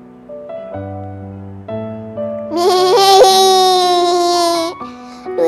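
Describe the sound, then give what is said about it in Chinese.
A loud, harsh sheep bleat from a tape recorder that fell out and broke during a football game, buzzy and wavering for about two seconds, follows a short run of steady, stepped tones. No talking accompanies it. “摔坏了，发出一声刺耳的咩咩声。”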